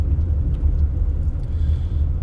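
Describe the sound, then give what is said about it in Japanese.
A steady, deep rumble inside a moving train carriage while riding, droning evenly without a break, with only faint higher hiss above the low roar and no voices. “そうすると急にですねバッとこうね目が覚めるっていうかあれ電車に乗っている今当たり前なんですけどね”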